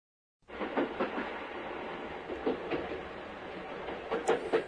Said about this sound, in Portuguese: Esse é o som produzido por um trem ao se deslocar, não é? Exatamente. Em japonês, dizemos. Gatan goton.